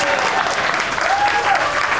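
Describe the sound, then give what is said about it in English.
Audience applause at a screening of the 1971 Hal Ashby film Harold and Maude fills the whole two seconds: a steady, dense wash of many hands clapping at an even loudness, with no voices standing out. “You could have applauded there, that would have showed a lot of enthusiasm.”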